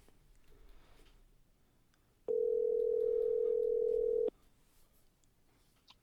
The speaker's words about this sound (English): We got it says calling and it's not doing anything. Oh, oh we I have liftoff. I hear a dial tone.